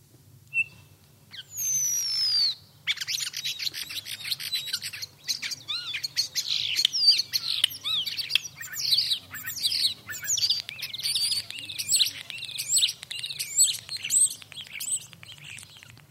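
A common starling sings a long, busy medley of whistles, rattles, clicks and squeaky chatter, continuous, with a quiet low hum underneath and no talking.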